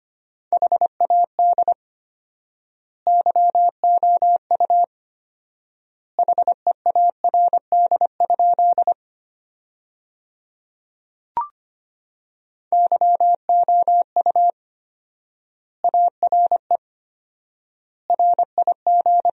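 A steady, mid-pitched tone keys on and off in fast Morse code bursts of dots and dashes sent at 25 words per minute, sentences built from the 400 most common words with four-times word spacing, long silent gaps separating groups of characters, clean with no voices.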